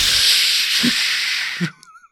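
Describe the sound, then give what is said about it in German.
A voice imitates a Bengal flare or smoke flare, making a long, steady hissing sound lasting about a second and a half before cutting off abruptly, followed by a brief breathy trailing noise. “Das ist das Geräusch, das so ein äh, Bengalo und eine Rauchfackel macht, liebe Leute, mhm.”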